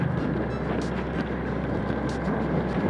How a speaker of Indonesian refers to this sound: podcast kita di atas motor hari ini